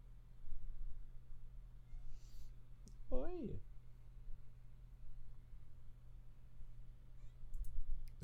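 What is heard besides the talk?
cat meowing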